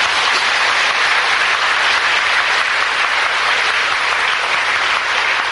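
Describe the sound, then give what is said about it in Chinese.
An audience applauds Buddhist dharma masters at a talk, a dense, even wash of many hands clapping at constant loudness throughout, with no voices standing out. “那么你们现在鼓掌，他们是法师，那我呢也是法师啦。”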